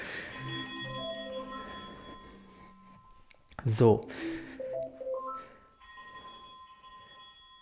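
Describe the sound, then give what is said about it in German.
A smart speaker in a bathroom rings for an incoming phone call with a melodic electronic ringtone, steady tonal notes chiming repeatedly for several seconds, with a brief burst of speech and clatter partway through. “Und da rufe ich jetzt einfach nochmal an, während ich wieder ins Bad laufe, weil da nutze ich das ja für, dass ich dann, wenn man mal unter der Dusche steht oder so, dass man dann hören kann, wenn einer anruft, wer es ist.”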